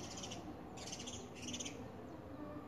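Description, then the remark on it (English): Birds chirp outdoors in quick bright bursts, repeating several times over a steady hum of ambient background noise, fairly quiet. “i think i can capture some other sounds too like you can you hear the birds”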